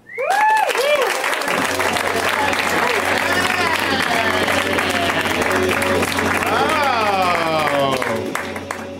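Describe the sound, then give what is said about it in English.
An audience breaks into loud, sustained applause as a performer is introduced, with whoops and cheers rising over the dense clapping, which holds steady for about nine seconds before tapering slightly at the end. “Please make it loud”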